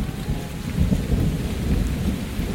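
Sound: rain falling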